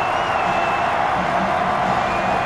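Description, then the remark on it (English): A stadium crowd cheers in a steady, loud roar that holds at an even level for the whole stretch, a dense wash of voices with no single shout standing out, at the Alamo Dome during a football game on third and nine. “Crowd in full throat here at the Alamo Dome.”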